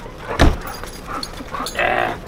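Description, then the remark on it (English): A dog lets out a short, sharp sound, followed by a few softer, drawn-out vocal noises over a quiet background, with no one speaking. “Here, I'm gonna grab the dog.”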